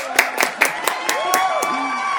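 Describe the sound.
An audience claps and cheers, with sharp, uneven hand claps over a steady crowd murmur and a few rising whoops from voices in the group.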